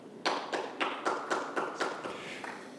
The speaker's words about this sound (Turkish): Teşekkür etmeyeceğimi biliyorsunuz. Boşuna alkışlamayın.